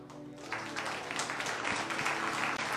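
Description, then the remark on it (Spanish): An audience bursts into sustained applause for the Lord after a brief moment, many hands clapping in a dense, steady wash with a faint low hum beneath. “Denle un fuerte aplauso al Señor y que Dios les bendiga.”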